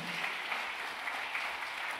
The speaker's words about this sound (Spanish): ¿Cuánto le dan un aplauso fuerte?